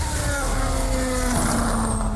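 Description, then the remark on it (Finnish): A Mercedes formula car engine roars steadily and loudly, its high mechanical whine shifting slightly in pitch over a dense rumble, with no voices. “Minkä toi formula, formulamoottorin pauhaa.”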